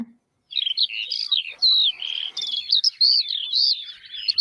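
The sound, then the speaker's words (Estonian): A skylark sings a continuous, rapid stream of high, warbling and trilling notes, bright and fairly loud, with no pauses after a brief silent start. “kõik saaksite siis teada, et mismoodi see põldleoke”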